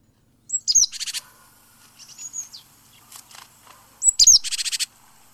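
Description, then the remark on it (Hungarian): A small songbird, a great tit, calls twice: each burst opens with a sharp, high whistled note and runs into a quick, scratchy chatter of repeated notes, clear, with softer chirps between. “látom, hogy a széncinege volt az, amit láttam”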